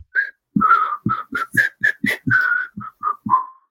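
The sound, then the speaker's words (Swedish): Someone tries to whistle but fails, in about a dozen short, breathy bursts, mostly rushing air with only a faint, wavering tone breaking through. “Försökte jag vissla, men det gick inte.”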